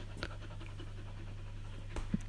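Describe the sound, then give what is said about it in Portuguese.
A dog named Sol pants softly, with a few short breathy bursts rising over a steady low electrical hum; no one speaks. “Obrigado, Sol, por chateares com a porcaria da bola.”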